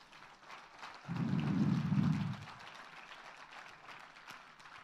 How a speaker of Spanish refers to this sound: Den un fuerte aplauso a Jesús por eso.